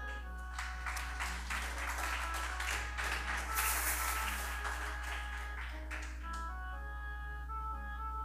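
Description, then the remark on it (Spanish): A church audience gives a loud applause for the Lord during a sermon, a dense, steady wash of clapping that swells midway and fades after about six seconds, with sustained musical tones and a low hum underneath. “¿Quién le da un fuerte aplauso al Señor?”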